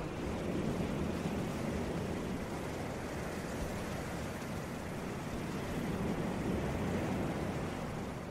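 Steady, continuous roar of ocean surf, with a broad rushing wash of waves that never lets up, heard without any voices over the full stretch.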